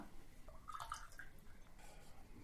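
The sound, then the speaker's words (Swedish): A drink trickles and glugs into a glass, a short, soft pour with a few bubbly, rising gurgles near the start, with no one speaking. “Men häll upp ett glas till mig också, min sköna älskarinna.”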